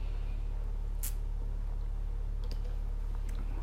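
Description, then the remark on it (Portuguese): A quiet sip of water, with a brief slurp followed by a few soft mouth clicks and swallowing sounds over a low steady hum. No one speaks. “Deixa eu tomar mais uma água.”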